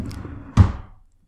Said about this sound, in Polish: To był dźwięk zamykanej szuflady.